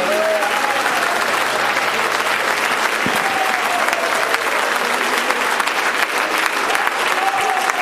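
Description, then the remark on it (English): An audience claps hands to the Lord in sustained, dense applause, a steady loud wash of overlapping claps with a faint murmur of voices underneath, continuing evenly throughout. “Would you clap your hands to the Lord one more time this morning?”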